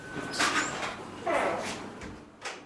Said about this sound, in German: Es geht also durch eine dicke, schallisolierte Tür, dann sind wir da.